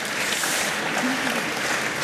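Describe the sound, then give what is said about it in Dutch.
Steady applause from the audience in a hall, a dense, even wash of many hands clapping at a moderate level, sustained without a break across the whole couple of seconds. “Zelfs een applaus.”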